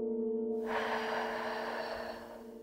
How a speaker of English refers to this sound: Breathe in through your nose and then blow your breath out gently, making a bubble in your mind. Breathe in and breathe out, blowing a bubble.